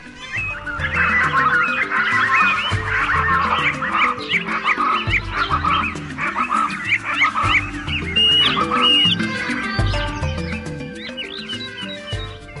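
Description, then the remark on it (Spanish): The distant song of Puampuan, the witch bird of an Amazonian tale, calls again and again in busy, chattering bursts over a steady low musical drone, the cries filling the whole stretch without a pause and with no one speaking. “Pocos son los que en verdad han visto con sus propios ojos a Puampuan, el pájaro brujo, pero en ocasiones se escucha a lo lejos su canto inconfundible.”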